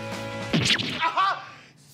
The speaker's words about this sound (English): so in the last bit right there, uh, they just like a, it's like a blooper where they someone gets slapped in the butt with a sword